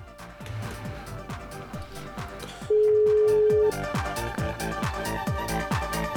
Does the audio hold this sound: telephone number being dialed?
yes